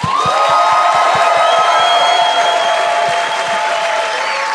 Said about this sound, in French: Mesdames et messieurs, vous allez être contents. Bonne main d'applaudissement